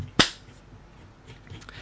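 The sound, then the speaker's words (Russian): A single sharp, loud slap of a hand on a bare bottom, a crisp smack that cuts off instantly, followed by quiet background hiss and faint rustling. “Сейчас тогда хлопнем попой.”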